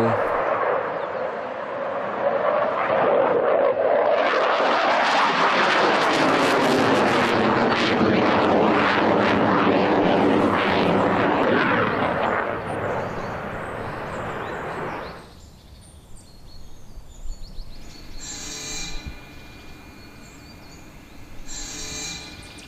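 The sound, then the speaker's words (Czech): A propeller airplane roars past overhead, its loud engine drone swelling quickly, sweeping down in pitch as it passes, then cutting away abruptly to near quiet with a few faint sounds. “Třeba poletí ještě zpátky. A už se vrací.”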